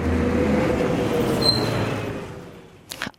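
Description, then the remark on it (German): A bus's loud engine rumble fades as the driver brakes hard, with a brief high brake squeal midway, followed by a few sharp knocks and rattles at the end. “Und dann läuft sicher irgend so ein blindes Huhn über die Strasse und der Buschauffeur geht voll auf Kletz.”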